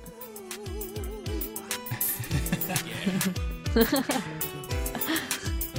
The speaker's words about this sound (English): Here's a live video. I'm curious yeah. of from the Daytona USA. Let's uh, let's see what happens when Yeah, there's a guy singing on the video. That could be good.